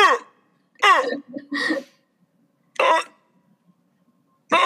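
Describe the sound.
A voice imitates a guttural dinosaur call: a series of short, raspy, throaty bursts with pauses between them, loud and close, and no speech.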